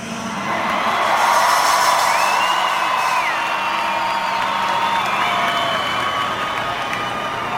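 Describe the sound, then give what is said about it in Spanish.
A large concert crowd applauds and cheers continuously for the saxophone player, thanking him for the anthem he just played, with whoops and shouts rising above a dense wash of clapping, loud and sustained for several seconds. “nada más ahí es el, el aplauso, el intro en lo que le están, pues, al cuate del sax aplaudiendo, dándole las gracias por el himno, por ese momento tan emotivo.”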